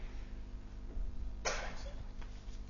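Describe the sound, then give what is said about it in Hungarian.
A single sharp sneeze bursts out midway, brief, over a low steady background hum with no talking. “Egészségedre.”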